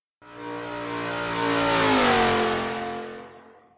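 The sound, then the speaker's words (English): A car engine revs hard and accelerates, its harmonic whine rising and swelling loud around two seconds before easing off as it fades away; the vehicle does 0 to 60 in 3.2 seconds. No voices. “What if I told you this thing does 0 to 60 in 3.2?”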